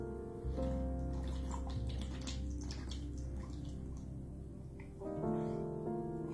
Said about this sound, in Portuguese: Hum, água.